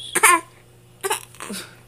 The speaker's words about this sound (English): That is the fakest cry, Mom. I just want attention. It was the fakest cough too.